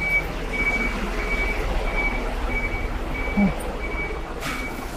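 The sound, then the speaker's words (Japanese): A truck maneuvers in a street blocked by another truck, its reversing alarm beeping at a steady, even pace over a low, continuous engine rumble, with a brief hiss near the end. “ちょっとね、なんか、進行方向を路中してるトラックと、あと、進みたいトラックがいるんだけれども、これどうなってんのなんか 意味不明だね。”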